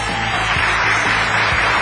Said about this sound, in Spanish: Hoy quiero mandar saludos muy especiales a nuestro municipio vecino de San Fernando que suelten los aplausos recios.